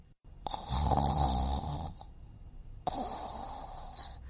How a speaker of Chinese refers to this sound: 咦，是谁在打呼噜？ 小熊从床上坐起来，仔细一听， 嗯，好像声音是从厨房传来的。哦，原来是冰箱啊！嗯，可是冰箱怎么会打呼噜呢？